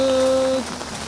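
Steady rain patters on surfaces outdoors in a dense, continuous hiss, recorded in the rain with a new microphone, with a faint electrical hum underneath that drops away partway through. No voices are heard.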